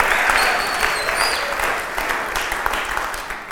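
Steady applause from an audience welcoming the announcement of a touchpoint gathering every Thursday, a dense rush of many hands clapping at once, loud at first and tapering slightly over a few seconds, with a few faint whistles on top.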